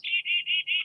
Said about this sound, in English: So you normally think you hear this chickadee call. So here's it. Here it is again,